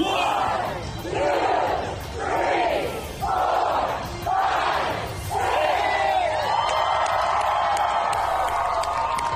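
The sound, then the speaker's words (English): At Disney World, a large crowd of fans chants in unison the number of Patriots Super Bowl victories, shouting five or six loud rhythmic words in a steady beat before breaking into a sustained roar of cheering. “Then at last report, they rode in a parade with Mickey Mouse and led fans in a chant of the number of Patriot Super Bowl victories.”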